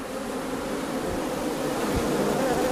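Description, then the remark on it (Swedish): A dense, steady drone of many honeybees buzzing together as a swarm on a branch, continuous, with no voices present, as a beekeeper in a protective suit prepares to shake the swarm loose. “En bisvärm kan ju faktiskt locka till sig bin från ett annat samhälle som kanske inte är lika lätta att hantera.”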